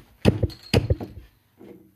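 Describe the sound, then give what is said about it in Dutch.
A beer bottle is struck against a crumbling table edge twice to knock it open, about half a second apart: two loud, hard knocks, each with a short rattling decay, then a faint low rustle. “Die tafel die brokkelt ook gewoon af elke keer als ik dit probeer te doen.”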